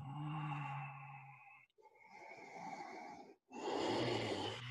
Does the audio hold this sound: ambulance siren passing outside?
no